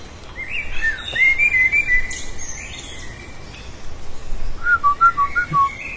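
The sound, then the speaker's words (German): Thin, whistled bird calls played from a mobile phone in short trilling phrases, with a pause in the middle before a second burst, heard alone over a faint steady background hiss with no talking. “Das sind die Handyvögel, glaube ich.”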